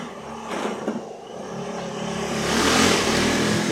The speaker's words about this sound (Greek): Πολύ μηχανάκι ναι, σήμερα στην πόλη. Μας έχουν τρελάνει.